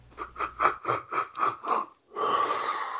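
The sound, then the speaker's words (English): A run of seven rhythmic, chugging huffs of breath, a brief pause, then a loud, drawn-out yawn. It sounds like a voice imitating a train pulling in. No talking. “A train yawn?”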